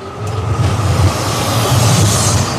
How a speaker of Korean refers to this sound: 어? 형! 배송 트럭이 출발했어! 고객 배송 트럭은 M사를 빠져나와 시내로 달렸다.